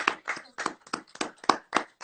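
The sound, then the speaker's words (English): Steady rhythmic hand clapping, about nine crisp claps in two seconds at an even pace, with no talking over it. “Why are we why are we clapping?”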